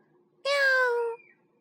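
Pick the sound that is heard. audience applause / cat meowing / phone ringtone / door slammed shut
cat meowing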